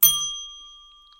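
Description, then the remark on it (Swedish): A single bright ding chime rings out with a sharp strike, then its clear high tone sustains and slowly fades over about a second, with no voices present. “Plinga lite, förlåt tutel.”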